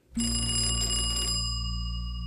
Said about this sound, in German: Bei Familie Hermann zu Hause klingelt das Telefon